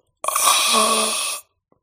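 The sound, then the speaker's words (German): A single drawn-out, raspy throat sound lasting just over a second, harsh and breathy like a parched croak, made by a voice imitating the guttural sounds of a woman whose mouth is completely dried out, with no talking. “Als du dich näherst, hörst du, also sie öffnet den Mund und du hörst so kehlige Laute, als wenn ihr Mund komplett vertrocknet wäre.”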